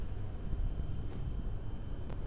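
Steady low rumble of wind buffeting a microphone outdoors, fairly quiet, a continuous muffled whoosh with no voices and a couple of faint brief ticks.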